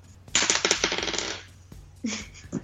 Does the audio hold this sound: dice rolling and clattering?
yes